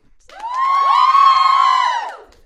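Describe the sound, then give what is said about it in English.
A crowd at a college on St. Stephen's Green cheers and whoops in welcome for a new band, a dense burst of many high voices that swells quickly, holds loud for over a second, then fades away. “So uh, maybe if you'd like to give them a warm welcome, everybody.”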